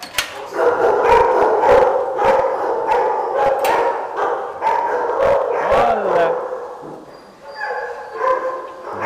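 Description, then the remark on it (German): A crowd of dogs in kennels barks and howls at people together in a reverberant space, sharp overlapping barks over sustained wailing howls, loud, continuing for the whole stretch before easing slightly near the end. “Aber nicht alle Hunde freuen sich über Besuch. Viele verbellen Menschen”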